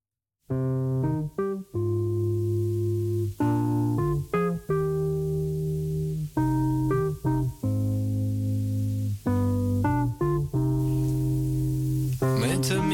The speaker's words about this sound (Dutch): Zodat ik ruim de tijd heb om mijn gitaar te stemmen.